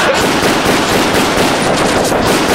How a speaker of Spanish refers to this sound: Están disparando la policía al que está cayendo en paracaídas, ¿eh? Pero yo pienso que es parte del espectáculo que tienen preparado.